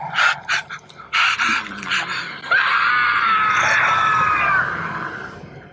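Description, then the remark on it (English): Several short, sharp high-pitched cries break out, then one long, shrill, wavering scream holds for about two seconds before trailing off. It is loud, with no talking. “the screaming you're hearing is that of …”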